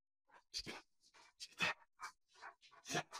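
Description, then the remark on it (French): A large dog pants in quick, breathy bursts in a studio, mixed with rustling and shuffling as it moves around; no one speaks. “Nous autres, on aime ça, voir des chiens.”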